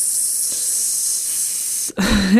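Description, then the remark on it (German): A person makes a long, steady hissing "sss" with their voice for about two seconds, a cue telling a horse to keep slowing down toward a stop, then it breaks off abruptly into a short voiced sound. “Und ähm, dann weiß mein Pferd, das üben wir gerade noch, das habe ich als letzten Laut etabliert, ähm, dann weiß sie sozusagen oder das Pferd weiß, ah ja, solange S”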